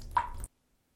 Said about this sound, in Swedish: En droppe föll från duschslangen.